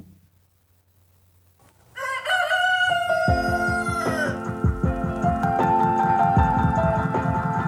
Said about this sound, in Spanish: Se despide también de ustedes el ballet, el gallo con autotune.